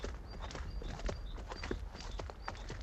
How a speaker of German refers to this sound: Das Hufgetrappel kommt näher.